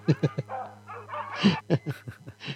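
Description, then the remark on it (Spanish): Dogs bark in a rapid series of sharp yips and woofs, broken by a stretch of high whining before the barking picks up again. “y si se ponen así, medio muy babosos, entonces le mandamos los perros.”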